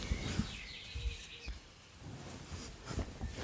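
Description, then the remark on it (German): A bird chirps with high, thin whistled notes in the background, coming in through an open window. Faint speech and low rumbles come and go underneath. “Übrigens höre ich die ganze Zeit bei dir so einen scheiß Vogel piepen, ne?”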